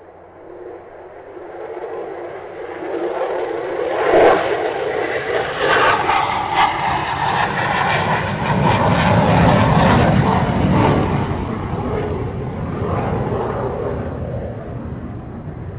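A big airplane's engine roars as it takes off, building in intensity, a steady, loud rushing drone that swells after a few seconds and holds strong throughout, with no voices.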